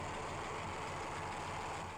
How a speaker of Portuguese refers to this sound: o carro ainda sofria bastante com seu powertrain que, graças ao barulho característico do boxer e da constante vibração passada para dentro da cabine, recebeu o apelido carinhoso de batedeira.